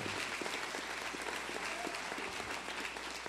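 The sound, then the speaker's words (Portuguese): An audience applauds their Lord, giving glory to God, with steady dense clapping filling the room at a constant level for a few seconds, with no voices standing out. “Dá outra glória a Deus para Ele. Pode aplaudir o teu Senhor.”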